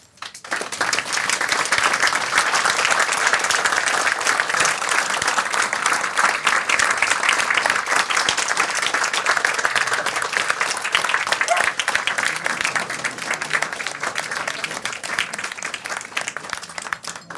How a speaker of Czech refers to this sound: Myslím, že ten potlesk vyčil o tom, že se nám všem moc líbila.